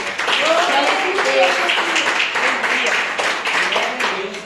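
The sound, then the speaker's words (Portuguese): An audience at a church service claps hands steadily and loudly for several seconds to the Lord, a dense patter of many palms, with voices mixed in underneath the clapping throughout. “as palmas do ao Senhor.”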